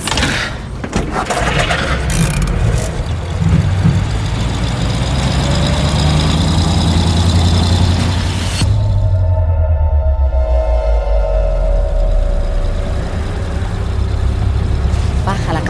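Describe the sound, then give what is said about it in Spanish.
A car engine idles with a steady, loud, low rumble throughout. Partway through, the sound turns duller and more muffled, with a humming drone riding over the idle. “Apaga el motor.”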